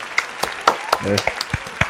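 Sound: applause sound effect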